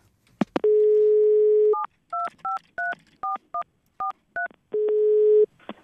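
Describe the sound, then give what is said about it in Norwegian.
A steady telephone dial tone hums, then a quick run of about ten dual-pitch keypad beeps as a number is punched in to call Lorentz Mørkved, president of Norsk Tullingforbund, from Radio Revolt, the student radio in Trondheim, followed by the dial tone returning. No voices. “God dag, jeg ringer fra Radio Revolt, studentradioen i Trondheim.”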